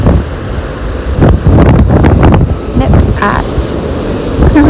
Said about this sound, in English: So gorgeous to see the waves crashing against the sand, watching the birds.